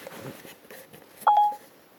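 A single short electronic phone tone, like a dialing beep, rings out clearly and fairly loud for a moment against faint background noise, with no talking, as Siri places a call to the number 1004, a Movistar phone line.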